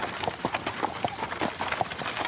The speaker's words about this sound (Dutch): Vanaf de 18e eeuw kwam er een sneller vervoersmiddel, de koets. Dit is een wagen met wielen die voortgetrokken wordt door paarden.